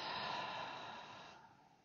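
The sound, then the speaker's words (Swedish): A single long, airy, soft exhale during a guided relaxation exercise, breath rushing out steadily and tapering off near the end, with no talking. “Andas ut.”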